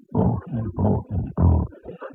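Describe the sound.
A voice loudly imitates a woman snoring in a series of about five rough, growling snorts, rhythmic, with short gaps between each rasping breath.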